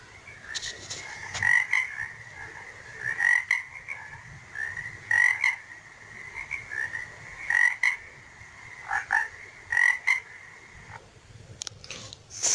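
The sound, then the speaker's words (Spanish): A frog croaks over and over in rapid, rattling bursts, repeating steadily at a clear level with a faint outdoor background and no talking. “Soy verde, me gusta saltar, jugar en el charco y también croar.”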